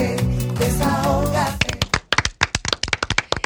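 Music plays briefly, then gives way to the studio's customary applause at the show's opening: a burst of sharp, uneven hand claps from a small group, loud and irregular for about two seconds.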